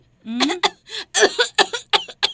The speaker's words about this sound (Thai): เป็นเสียงไอเหมือนคล้ายๆ แบบสำลักของเด็กๆตัวเล็กๆอ่ะอ๋ออาการสำลักเวลาเด็กๆ รีบกินข้าวใช่ไหมอยากจะไปเล่นเร็วๆ ไง ใช่แล้วล่ะค่ะ